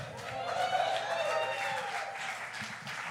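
An audience applauds steadily for a few seconds, a dense wash of clapping at even loudness with some voices mixed in, heard from within the room.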